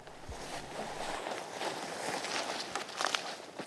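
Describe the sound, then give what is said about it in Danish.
Footsteps crunch and swish steadily across a former field, a continuous rustling tread through dry vegetation with a few sharper snaps near the end; no one speaks. “Jamen, skal vi ikke prøve at gå en tur ud på, på den tidligere mark, som det så er, og prøve at se, hvad der, hvad der sker herude?”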